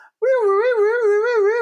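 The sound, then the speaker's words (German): A steady siren-like wail rises and falls gently in pitch, loud, holding one continuous tone for over a second with no talking. “Das war eine Sirene.”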